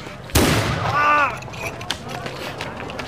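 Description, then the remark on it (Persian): A single loud, sharp gunshot cracks out and rings off, followed by a brief tonal voice-like cry and a few faint clicks and pops in the quieter tail. “صدای گوله اومد کار تو بود”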